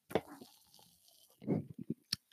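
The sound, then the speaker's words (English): Sips from a Pepsi soda: a few short, wet slurping and gulping sounds in quick succession, quiet overall, with no one talking. “All right, another sip here.”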